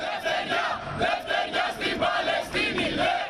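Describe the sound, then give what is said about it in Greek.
A large crowd of PASP members, marching along Akadimias Street toward the American embassy in the annual Polytechnic march and holding a Greek flag sewn with red carnations, chants slogans in support of the Palestinian people in unison, voices rising and falling in a steady rhythmic cadence, loud and continuous throughout. “Κρατώντα την ελληνική σημαία που έχουν ράνει με κόκκινα γαρίφαλα, τα μέλη τη ΠΑΣΠ φωνάζουν συνθήματα υπέρ του Παλαιστινιακού λαού.”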